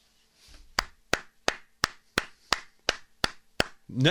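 A host claps their hands about ten times in a steady, fairly quick rhythm, applauding BlackRock, the money management firm, with each clap a sharp, bright smack and no talking over it.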